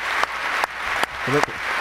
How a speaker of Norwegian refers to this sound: Men jeg må bare få en liten lyd til her, hvor han står og klapper selv. For at det er sånn, Prøver å dra på applausen selv.